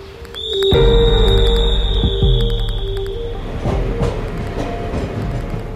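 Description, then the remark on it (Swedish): A night train from Munich to Hamburg rolls along the rails with a deep steady rumble, a high metallic squeal, and irregular clacking as the wheels pass over track joints. No voices. “På kvällen stiger han på nattåget från München till Hamburg.”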